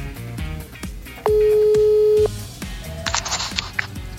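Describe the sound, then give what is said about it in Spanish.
A loud, steady telephone call tone sounds once for about a second over a rhythmic background music bed as a call is placed live on the radio station Exa 101.7 FM, followed shortly after by a short burst of hissy noise on the line. “aquí está el teléfono.”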